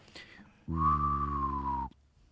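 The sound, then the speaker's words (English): A person hums a low steady tone while whistling a high, slightly falling note over it, creating a buzzy overtone blend that lasts about a second before stopping abruptly. “And it's literally just ooh while you're whistling.”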